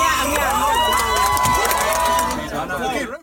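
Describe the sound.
A community crowd of many voices shouts and cheers in a loud, continuous, excited roar as a baby is rescued from a drain and handed up to medics, with high calls rising above the din before it cuts off abruptly.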